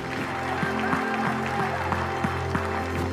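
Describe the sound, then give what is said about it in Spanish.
A crowd claps steadily for the King of Kings, Lord of Lords, a dense wash of many hands over a sustained keyboard-like tone humming underneath. No one speaks. “Dale un aplauso al Rey de Reyes, al Señor de Señores.”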